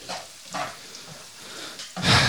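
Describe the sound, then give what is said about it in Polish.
Garlic being added to hot oil in a frying pan sizzles, a steady crackling hiss that flares louder near the end as more hits the pan, without speech. “Dorzucam czosnku teraz.”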